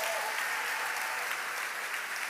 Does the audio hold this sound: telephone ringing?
no